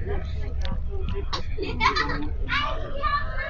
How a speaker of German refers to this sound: Jo, man hört hier ein paar Leute.